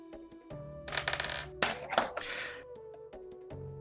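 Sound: dice being rolled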